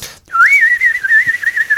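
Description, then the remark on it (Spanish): A bird-whistle organ stop warbles when the stop is opened. Its small one-piece device sits partly submerged in a little dish of water. It makes one steady, high, trilling tone that wobbles rapidly in pitch, like water bubbling through a toy bird whistle. It plays loudly and alone after a brief silence. “a la hora que le abres el registro empieza a sonar precisamente como los pajaritos estos que mencionas de, de plástico.”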